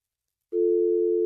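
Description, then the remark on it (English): After a moment of silence, a steady, mid-pitched telephone tone starts abruptly and holds at an even level, like a busy signal on a dropped call. No voices. “Oh, we lost Bryce. Uh, that's all right.”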